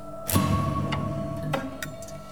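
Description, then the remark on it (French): A flickering fluorescent neon tube gives a few sharp, irregular clicks as it switches on, over a steady electrical hum, with no voices. “Le tube clignote, ça fait « cling, cling », et la lumière du néon s’allume.”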